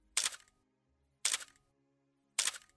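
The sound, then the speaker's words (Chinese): Three crisp camera shutter clicks, evenly spaced about a second apart, each a sharp bright snap with a short mechanical tail, with silence between them and no voices. “随着一声声快门的按下，这一美丽的时刻被永远的记录了下来。”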